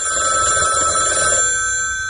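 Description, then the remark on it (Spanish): A telephone bell rings loudly and steadily with a bright metallic trill, then cuts off and fades out after about a second and a half, with no voices. “Hay personas que para mover el mundo tan solo tienen que descolgar el teléfono.”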